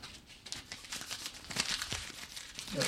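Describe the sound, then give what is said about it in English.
A Foley fireplace crackle from a film comedy, with a steady stream of irregular snaps and pops that swell slightly toward the end. No voices are present. “gather around the fireplace. oh, the Foley work here. Oh, that's very nice.”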